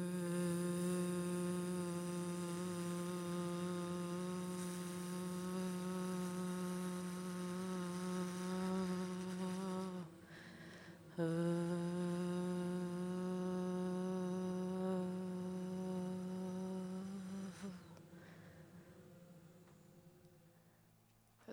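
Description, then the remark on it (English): A group of voices hums a sustained, low "voo" together, a thick buzzing drone that holds steady, breaks briefly for a breath around the middle, then resumes and slowly fades out. “So humming, vooing. Okay, let's do this together. I'll voo with you guys.”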